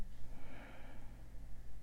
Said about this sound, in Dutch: Je mond openen. Je kaken wat spreiden. Je oren openen. Misschien voel je dat klikje. En dan adem je uit met die ha-klank. Het is bijna alsof je gaat gapen.